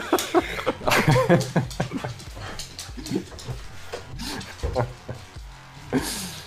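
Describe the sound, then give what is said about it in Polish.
A dog named May, which came running with the police, barks in short, irregular bursts, mixed with panting and snuffling noises, moderately loud throughout. “Ja ona no, po prostu szczeka sobie coś.”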